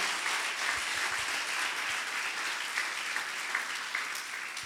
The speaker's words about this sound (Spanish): Dale un fuerte aplauso a Jesús en esta hora.